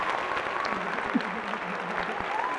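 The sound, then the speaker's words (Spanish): An applause sound effect: a steady wash of applause from a crowd, dense clapping that holds at an even level throughout with a faint murmur of voices mixed in. “¿Dónde están los aplausos?”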